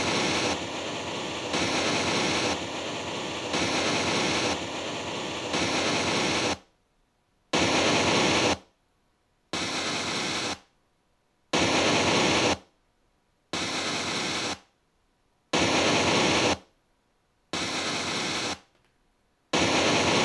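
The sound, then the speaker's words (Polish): A generated electronic test signal for identifying in-phase and antiphase channels, played through a loudspeaker, like signals once broadcast on radio before a record: a steady, loud burst of hissing white noise for several seconds, then evenly spaced one-second noise pulses alternating with silence, with no voices. “To coś takiego jak kiedyś były w radiu emitowane sygnały przed emisją jakiejś płyty na przykład.”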